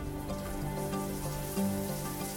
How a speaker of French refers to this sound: Dans la cabine, il y a une pomme de douche en haut qui vaporise de l'eau